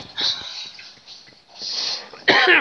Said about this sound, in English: Excuse my cough.